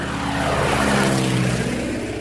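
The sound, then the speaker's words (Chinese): An airplane flying overhead, its engine a loud, steady droning roar with low humming propeller tones that hold for about two seconds, with no voices. “飞机飞过天空会留下印记”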